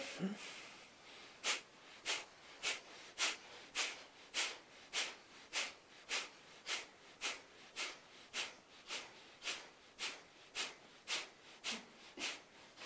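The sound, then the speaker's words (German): Rapid, forceful breaths pushed out through the nose in a steady rhythm during a yoga breathing exercise, about two sharp puffs per second, fairly loud, continuing for over ten seconds with no talking. “Und atmen wieder normal weiter.”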